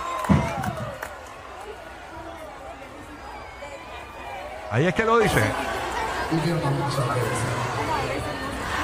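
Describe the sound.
A large concert crowd chants a singer's name in a loud, rhythmic roar that rises and falls, with a person speaking briefly over the noise.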